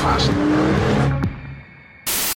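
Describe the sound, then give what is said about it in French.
A fast car's engine roars loudly at high speed on a motorway for about a second, then quickly fades away, followed by a short, harsh burst of noise at the very end. “Vous savez, ces voitures qui vont à toute blinde sur l'autoroute, etc.”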